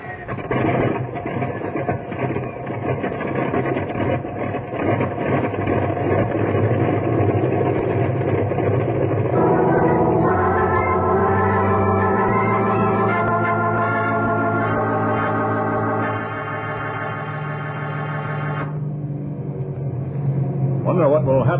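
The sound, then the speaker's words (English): An airplane engine runs steadily with a loud, rumbling drone as the plane is set on its way to a hospital. Partway through, its pitch rises in a series of stepped, humming tones, then settles back into a rough roar. “I'll get the plane on its way to a hospital.”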